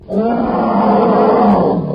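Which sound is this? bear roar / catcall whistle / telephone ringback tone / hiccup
bear roar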